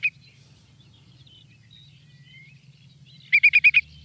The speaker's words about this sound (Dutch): Ik vind alleen het woord vind ik al prachtig, maar ik ben ook benieuwd hoe, hoe de regenwulp klinkt. En dat is dus zo. dit de regenwulp? Dat is de regenwulp. Mooi geluid, ik wil hem eigenlijk nog een keer horen.